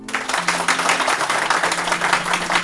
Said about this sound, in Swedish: alltså, publiken hörs ju inte. Alltså, nu när man har lurarna på sig så är de så här, kan ni applådera en gång?